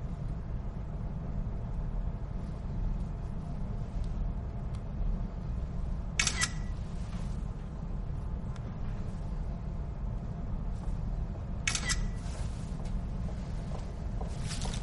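Two sharp camera shutter clicks, one around six seconds in and another near twelve, each a quick mechanical snap over a steady low rumbling background hum, as photos are taken of a car's driver door in a garage.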